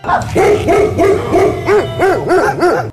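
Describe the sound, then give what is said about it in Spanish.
A dog barks in a quick, steady series of about nine loud, tonal woofs, each one rising and falling in pitch, with no talking. “Así es de que el perro decía, huele a algo raro, huele a ajo.”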